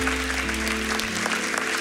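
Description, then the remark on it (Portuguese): A church audience applauds the Lord after communion in a steady, dense wash of clapping that fills the whole clip, with low sustained keyboard tones held underneath and shifting partway through. “Aplauda mesmo ao Senhor, Ele é digno.”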